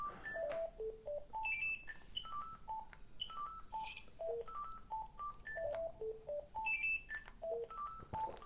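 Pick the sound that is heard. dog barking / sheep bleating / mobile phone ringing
mobile phone ringing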